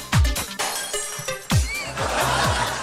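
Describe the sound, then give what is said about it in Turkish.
A song plays with deep bass hits and layered instruments, and around the middle a bright, glassy crash effect bursts out over the music, followed by shimmering high tones. “Orada öyle bir cam sesi var.”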